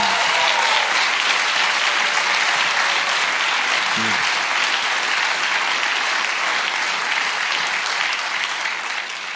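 Sustained applause from a church audience, a dense, loud wash of many hands clapping steadily for several seconds with no pauses, a brief low thump near the middle.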